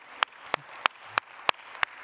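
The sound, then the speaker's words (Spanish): A church audience claps together in a steady, even rhythm to welcome those present, six sharp claps about a third of a second apart over a soft room hum, with no voices. “Dales un aplauso fuerte a todos los que están acá.”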